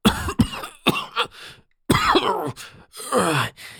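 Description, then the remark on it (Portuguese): A man coughs violently, starting with a few sharp hacking bursts, then after a brief pause breaking into longer, harsher, heaving coughs, with no speech. “O homem falou e tossiu. Primeiro uma simples sequência. Depois um arroubo que me pareceu que ele vomitaria o pulmão.”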